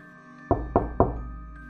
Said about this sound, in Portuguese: Eu bati na porta.